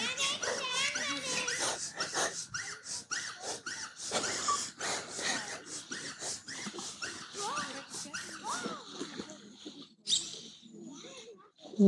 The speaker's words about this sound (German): Der Hund hat auch einen Quiekeball. Gut. Gut, das eine Quieken ist fertig.